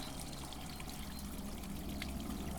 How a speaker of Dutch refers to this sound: Kijk, het water. Hier komt het water weer naar beneden